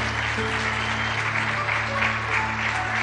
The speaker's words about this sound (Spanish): Si va a aplaudir, aplauda fuerte al Señor.